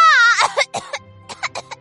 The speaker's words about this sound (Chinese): 小猴子用力的喊出了这句话，不过。被自己的口水呛得咳嗽了起来